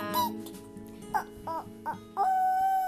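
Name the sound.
voice imitating a chicken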